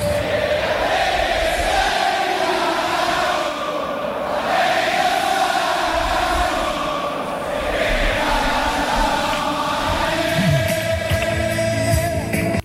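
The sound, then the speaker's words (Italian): A football song dear to AS Roma supporters, also heard before Roma-Napoli, sung by a large crowd in unison, a dense, roaring chorus that stays loud and steady throughout with no one talking over it. “ma in realtà è un brano che è tanto, che è nel cuore dei tifosi della Roma e che è risuonato anche prima di Roma-Napoli e forse un pezzettino ci fa piacere sentirlo.”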